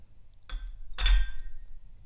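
Two coffee mugs, held up to a camera, clink together twice: a lighter tap followed by a louder ringing knock, each leaving a brief bright ceramic tone that fades out. No one speaks.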